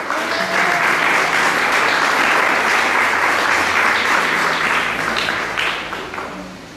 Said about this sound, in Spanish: Vamos a dar un fuerte aplauso a las mujeres en esta noche.